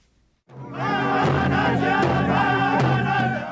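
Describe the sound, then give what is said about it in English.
At a protest camp, a large crowd of Standing Rock Sioux and thousands of others gathered to stop the Dakota Access Pipeline erupts into loud, sustained cheering and shouting, celebrating victory, joined by a few spaced drumbeats that punch through the roar of voices. “Drumbeats, cheers, and tears. The sound of victory for the Standing Rock Sioux and thousands of others gathered to stop the Dakota Access Pipeline.”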